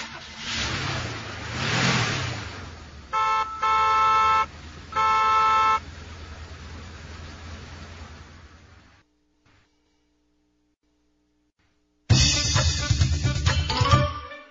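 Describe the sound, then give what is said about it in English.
A car drives past with a rising and falling engine rumble, then sounds its horn in two long, loud honks before the noise fades out; after a short silence, more traffic rumble starts. “can go in a car.”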